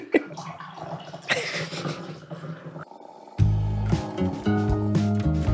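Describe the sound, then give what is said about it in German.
Coffee is poured into cups, a splashing, gurgling trickle that shifts in pitch as the cup fills, then turns into a steadier, louder pour near the end. “Ja, warte, ich gieße uns mal hier ein Tierchen ein.”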